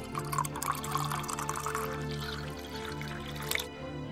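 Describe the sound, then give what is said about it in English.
Water pours steadily into a cup for about three and a half seconds, a continuous splashing trickle that stops abruptly, with no voices. “Would you like some water? Do you want some water too?”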